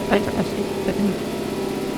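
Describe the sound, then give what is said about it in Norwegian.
An industrial compressor starting up in a plant runs with a steady, loud mechanical drone, a low rumbling hum layered with pulsing tonal harmonics, while a few brief voice sounds come through early on. “Eh, det var en kompressor som startet.”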